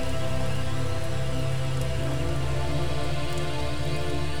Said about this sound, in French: La pluie s'éloigne, le tonnerre aussi. Bientôt, les seules gouttes qui tombent viennent des feuilles des arbres.